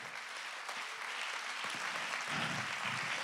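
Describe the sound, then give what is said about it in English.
An audience claps their hands to give God praise, a dense, steady wash of many overlapping claps with no clear beat, holding loud and even throughout, with a faint murmur of voices underneath. “Let's clap our hands and give God some praise right now.”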